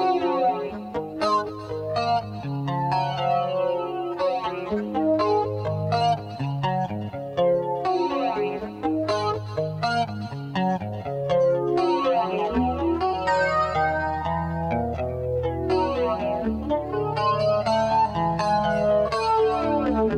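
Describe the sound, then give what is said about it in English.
A processed electric guitar plays a steady, busy riff as a song intro, with swirling, sweeping modulation, joined by a deeper bass line about halfway through; loud and up front, no voices. “Uh, yeah, you know, uh, there's some are speculating that there's maybe a flanger on that.”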